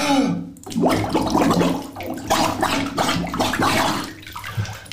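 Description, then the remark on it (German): Someone tries to whistle with their head under cold bathtub water: continuous bubbling and gurgling splashes for several seconds, with a muffled, wavering low tone buried beneath the water noise. “Wir können zum Beispiel kaltes Wasser in die Badwanne reinlassen und den Kopf drin haben. Mal probieren zu pfeifen.”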